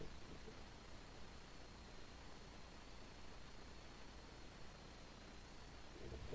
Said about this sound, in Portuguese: Esse som é horroroso, essa coisa de. Sabe, é muito estranho, é, é horrível. Podia ter esse, esse chiado como se fosse um, um, som de chuva, né? Porque ia ser muito bom ouvir assim. Só que é o microfone do Japão, né?